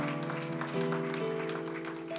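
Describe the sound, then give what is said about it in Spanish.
An audience claps for the Lord in a steady, dense wash of applause, with sustained keyboard or organ chords holding and shifting underneath throughout. “ese aplauso fuerte al Señor, hermano.”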